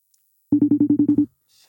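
A short burst of rapid electronic ringing tone from an outgoing phone call, about eight quick pulses in under a second, loud, followed by faint background noise with no talking.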